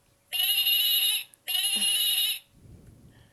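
A lamb bleats twice in close succession, each call loud, nasal and drawn out for about a second, followed by a faint low rumble of background noise.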